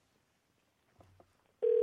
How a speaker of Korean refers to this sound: 자, 아, 이 중에서 어, 치킨집 하시는 분인데 한 달 되신 분인데 한번 전화 한번 걸어보겠습니다.